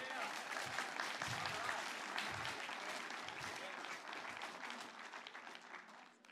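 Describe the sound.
A crowd applauds steadily with dense, sustained clapping that fills the whole stretch, tapering slightly toward the end, with a few voices mixed in.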